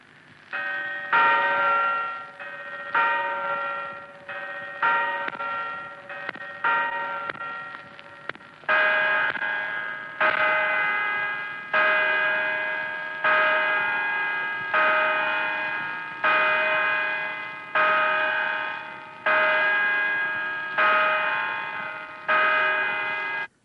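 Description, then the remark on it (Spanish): The bells of the Puerta del Sol clock ring a quick run of chimes, then strike ten o'clock at night with about ten slow, evenly spaced, resonant bongs, each tone ringing on into the next. No one speaks. “Son las 10 de la noche en el reloj de la Puerta del Sol.”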